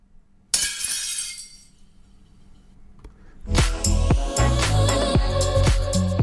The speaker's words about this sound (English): That is a plate smashing.